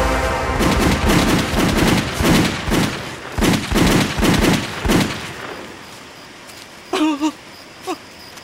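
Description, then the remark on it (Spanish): A firing squad's volley at a prisoner after the order to fire: about a dozen loud gunshots crack in quick, uneven succession for five seconds, then quiet falls, broken by a short wavering cry and one brief yelp. “Añade que al prisionero se le cayeron sus pantalones luego de recibir los disparos, quedando desnudo en su parte”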